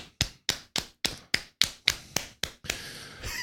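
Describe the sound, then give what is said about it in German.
About nine sharp claps or taps in a steady, even rhythm, a makeshift round of applause made by hand in place of a soundboard applause effect, ending in a brief rougher patter of noise, with no talking. “Das wäre mir jetzt mal ein Applaus wert.”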